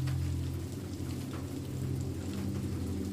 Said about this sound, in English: Rain falls on the skylights to offer the perfect sleepy soundtrack as you prepare for bed you peer out at the dark blue lake as raindrops race down the windows.